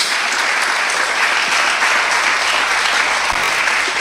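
Sustained, dense applause from a large crowd fills the whole stretch, a steady loud wash of many hands clapping at once with no talking over it.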